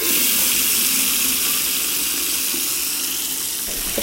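Lukewarm water from a tap runs steadily into a sink for handwashing, a continuous hiss and splash that holds an even level for the full few seconds, with no voices.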